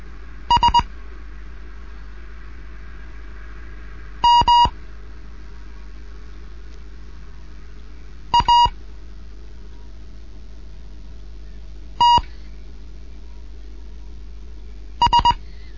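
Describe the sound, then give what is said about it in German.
Morse code beeps from a Morse lesson for beginners, the fifth lesson, by amateur radio station DJ1 Kilo November in Bremen: five brief groups of steady mid-pitched tones, each one or two short dits, spaced about four seconds apart over a faint background hiss, with no voices. “DJ1 Kilo November in Bremen mit einem Morseunterricht für Anfänger, fünfte Lektion.”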